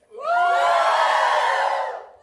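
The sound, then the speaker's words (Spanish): A church audience erupts in a loud, sustained collective shout during a morning service, lasting about two seconds, many voices rising together in a roaring cheer before tapering off. “dice la Biblia que gritaron con toda su fuerza, así como grita usted hoy en esta mañana.”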